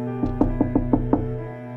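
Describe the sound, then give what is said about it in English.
A quick run of six firm knocks on a door, evenly spaced over about a second, over a steady low background hum, with no voices. “Almost on cue, there's a knock at my door.”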